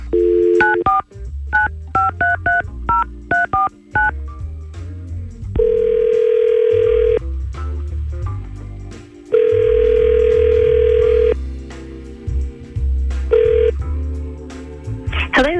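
A rapid series of telephone keypad dialing tones beeps out as a call is placed to a woman, followed by two long, steady ringback tones of a phone line ringing, with faint background noise underneath.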